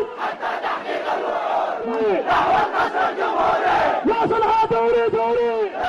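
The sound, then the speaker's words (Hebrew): A large crowd in Yemen chants and shouts in unison, a dense, loud roar of many voices with rising, rhythmic vocal cries repeating throughout, at a protest after the Arab Spring against President Ali Abdullah Saleh. “עכשיו, אחרי האביב הערבי החלה מחאה גדולה מאוד בתימן נגד הנשיא המיתולוגי עלי עבדאללה סאלח.”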